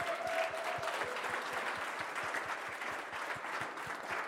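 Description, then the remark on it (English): A crowd claps steadily, giving the Lord another big hand, dense overlapping handclaps forming a sustained wash of applause at moderate loudness, with a faint tonal whistle or cheer near the start. “Let's give the Lord another big hand.”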